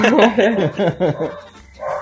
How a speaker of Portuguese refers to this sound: Só uma coisa, o cachorro aqui tá loucão.